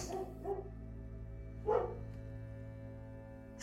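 A dog barks a few times, short sharp woofs spaced about a second apart, over a steady low hum, with one more bark starting right at the end.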